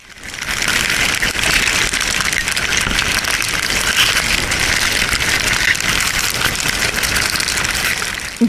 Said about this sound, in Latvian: nu, tās bija ļoti, ļoti uh, skaļi uzgrieztas skudras, kuras skraida un tekalē.